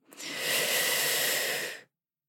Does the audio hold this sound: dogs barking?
no